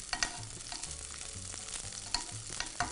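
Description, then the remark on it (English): Steady sizzling of whole butter frying with nearly cooked mushrooms in a pan, a dense crackle broken by several sharp clinks and scrapes of stirring, with no voices. “And now, now that our mushrooms are just about cooked, I'm just going to add just a little bit of whole butter here to this pan.”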